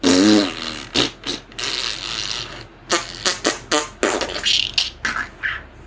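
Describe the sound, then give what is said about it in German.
A rapid series of fart sounds, about a dozen short bursts of varying pitch and length, some squeaky and wet, played loud with no talking. “bis dieser Furzbaum voll ist mit Püpsen von oben bis unten”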